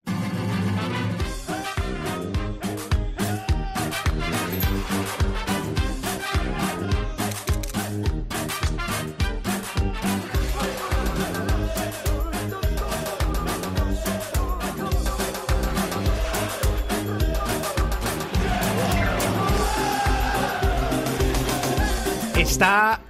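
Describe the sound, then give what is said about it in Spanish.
A lively, upbeat theme tune plays loud and steady for over twenty seconds, with a bouncy, carnival-style band feel, punchy rhythmic beats and bright melody lines, no talking over it. “Está bien esta sintonía, ¿verdad?”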